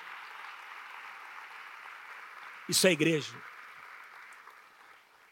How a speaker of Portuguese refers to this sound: Quem acha que Jesus merece um aplauso nessa manhã?